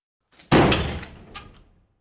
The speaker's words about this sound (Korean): 화장실 문을 닫고 들어갔다.